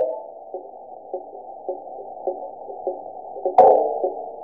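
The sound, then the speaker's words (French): A muffled, narrow mechanical hum with faint creaks ticking at a steady pace about twice a second, then one sharper, louder crack near the end, from a robot rover's mechanisms creaking in the extreme cold on Mars; no voices. “Donc ce qu'on vient d'entendre, c'est le bruit d'un robot sur Mars.”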